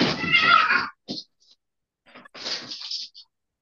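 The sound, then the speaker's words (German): A hungry cat meows insistently: a long, loud yowl, then a couple of short chirps, and another drawn-out plaintive meow after a brief pause. “Okay, Stress mit der Katze.”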